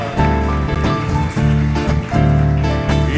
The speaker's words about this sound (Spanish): Dale ese fuerte aplauso al Rey. Aleluya. Aleluya.